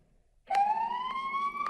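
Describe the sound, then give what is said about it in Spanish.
An ambulance siren sounds its long tone, used on high-traffic roads such as beltways and highways: a loud, sustained wail that starts abruptly after a brief quiet moment and climbs slowly and steadily in pitch, with no voices. “Mira, ese es el tono largo.”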